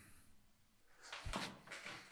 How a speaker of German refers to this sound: Warte, ich muss eben die Tür aufmachen.